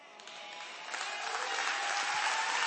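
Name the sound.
audience clapping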